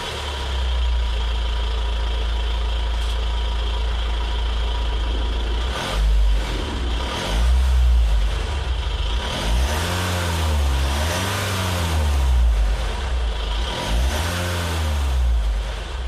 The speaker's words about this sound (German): Selbstzünder. Ja, eindeutig hab, ein Dieselmotor. Ich habe mhm. das schon mal gesagt, so im Stand klingen wirklich die wenigsten Diesel wirklich gut.